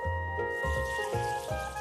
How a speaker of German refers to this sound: Das Wasser dazu bekommt er bei seiner Nachbarin. Obwohl das Gießen mühsam ist, würde er gerne mehr Leute dazu animieren.